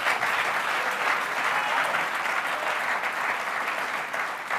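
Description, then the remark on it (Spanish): An audience applauds the Lord steadily and loudly, a dense wash of many hands clapping that holds at an even level for several seconds with no voices standing out. “Dame un fuerte aplauso al Señor.”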